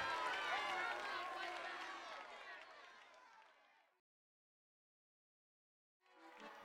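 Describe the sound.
A large crowd in France cheers and applauds the general as he tours the country to meet its people, a dense wash of voices and clapping that slowly fades out, then falls silent for a couple of seconds before the cheering swells back in.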